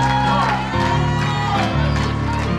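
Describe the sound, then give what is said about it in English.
A church audience claps and shouts praise to the Lord in the morning service, a loud, continuous wash of overlapping voices and hand claps with a steady tonal hum running underneath. “Give the Lord a hand clap of praise and a shout for your seated this morning.”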